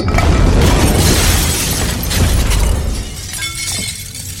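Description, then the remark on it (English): An ordinary grenade blast bursts out loudly with a crash of shattering glass, leaving a dense rumbling wash of debris and tinkling shards that slowly fades over several seconds. “What was that? Run of the mill grenade.”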